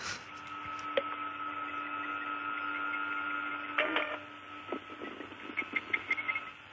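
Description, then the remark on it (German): A printer runs with a steady whirring hum and faint high whine, then breaks into a quick series of rattling, clicking mechanical bursts toward the end. No one speaks. “Welcher Drucker ist es?”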